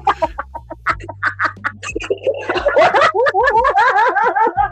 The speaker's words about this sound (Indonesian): Kuwi jaga ayam petarung